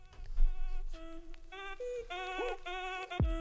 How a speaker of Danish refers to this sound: men til en anden sang. Som man også kan svinge hofterne til